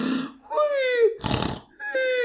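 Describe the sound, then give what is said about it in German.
A person fakes a snore: drawn-out voiced, groaning tones around a rough, raspy snort in the middle, fairly loud and a little clumsy. “Ja, ich, ich, ich kann nicht so gut Fake schnarchen, fällt mir gerade auf.”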